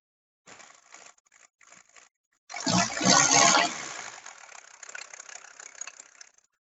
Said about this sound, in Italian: E questo è il famoso 5 cilindri. Partito. Eccolo qua, sentiamolo un po', sentiamolo un po'.